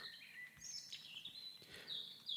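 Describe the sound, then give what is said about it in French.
Birds chirp and sing continuously in a steady overlapping chorus of high, bright twittering, fairly quiet, with no voices present. “La vue sur l'horizon est dégagée et étrangement, seul le gazouillis des oiseaux et le vent dans les arbres se font entendre.”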